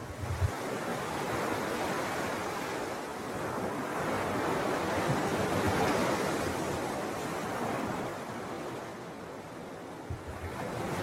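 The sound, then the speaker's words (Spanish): Ocean surf roars steadily as waves break and wash ashore, swelling to a louder crash midway before easing off again; a continuous wash of water with no voices. “¿Escuchas el oleaje?”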